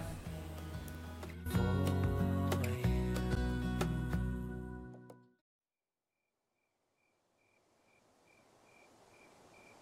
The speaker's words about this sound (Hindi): रात अपनी सरगोशी में है रमया अपने कमरे में सो रहा है दीवार पर टंगी घड़ी की आवाज़ के अलावा पूरा घर बिल्कुल शांत है तभी अचानक दीवार घड़ी की सुइयां चलना बंद हो जाती है